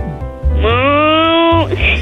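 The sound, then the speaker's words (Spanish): A child's voice imitates a cow, giving one drawn-out, rising moo that holds steady for about a second, fairly loud against faint background noise. “¿Puedes hacer el ruido de una vaca?”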